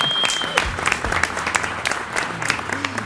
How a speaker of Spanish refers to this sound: Un aplauso